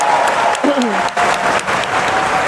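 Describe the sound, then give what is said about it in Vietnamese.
A crowd claps in a big, sustained round of applause for the four speakers of the morning session, dense and steady throughout, with a brief voice rising over the clapping partway through. “các chị hãy dành một tràng pháo tay thật lớn dành cho bốn à, diễn giả buổi sáng nay”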